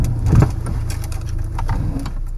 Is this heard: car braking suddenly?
yes